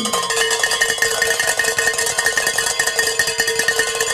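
Bells ring out in celebration of a goal being reached, a dense, continuous clangor of overlapping metallic strikes with bright, sustained tones, loud and steady throughout with no voices.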